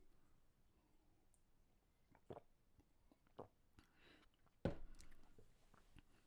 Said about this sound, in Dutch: Ik neem nog een slokje iced tea.